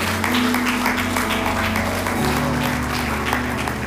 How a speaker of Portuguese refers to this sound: Em nome de Jesus, aplauda ao Senhor pela sua vida.